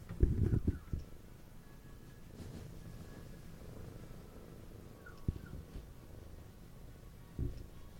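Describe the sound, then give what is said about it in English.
A cat purrs steadily in a person's lap, a soft continuous low rumble running the whole time, with a few louder bumps near the start and toward the end. “we're just gonna listen to Patty purring”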